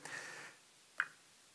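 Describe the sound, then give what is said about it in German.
Water pours into a glass held over a bowl protecting the carpet, with a soft, splashy hiss that fades within half a second, followed by a single bright drip or clink. It's quiet, with no voices. “Ich habe hier ein Glas und Wasser.”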